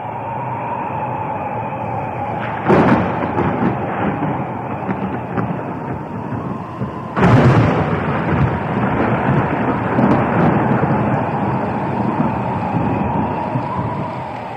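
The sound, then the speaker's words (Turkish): A steady, dense roar of an unprecedented deluge of heavy rain pours down throughout, broken by two loud thunder cracks, one early and one midway, each rumbling on as the downpour continues. No voices are heard. “görülmemiş bir yağmur. Bir tufan.”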